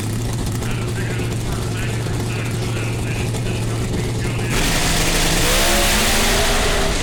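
The Pro Stock drag racing cars of Alex Laughlin and Stanfield sit in pre-stage at the NHRA Gatornationals in 2020, idling with a steady, throaty engine drone, then the engines rev hard and erupt into a loud, harsh roar that fills the rest of the sound.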